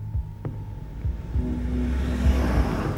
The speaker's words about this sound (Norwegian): sitter i bilen sin på vei fra Dalarna til Stockholm, som er en to-tre timers kjøretur.